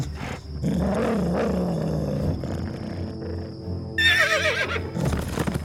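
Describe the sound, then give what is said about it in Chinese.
A deep, rumbling growl with faint hoof thuds underneath, the hooves of the owner's horse returning, gives way to a loud, high, quavering horse whinny near the end. No one speaks. “听到马蹄声传来，狡猾的郊狼知道是这里的主人回来了。”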